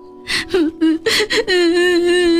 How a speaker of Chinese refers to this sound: 糟了，没有斧头就不能砍柴，就不能换东西了。男孩越想越着急。忍不住大声哭了起来